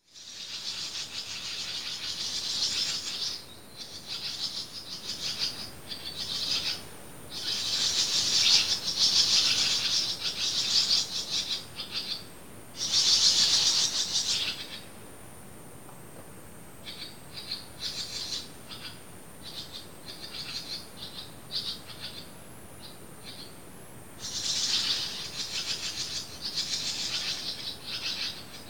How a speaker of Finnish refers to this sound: Siinä on haarapääskyn poikaset liiterissä.